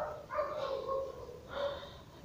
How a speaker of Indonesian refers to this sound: pokoknya dibuang dulu nafasnya dari mulut dibuang dulu sebanyak-banyaknya oke kalau udah udah lepas biarin aja nanti otomatis nafas kita akan terambil sendiri